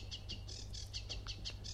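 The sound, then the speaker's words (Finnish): A sedge warbler sings a rapid series of repeated, buzzy chattering notes, about a dozen in quick rhythm, clear over a low constant hum. “Viikon luontoääni: Ruokokerttunen”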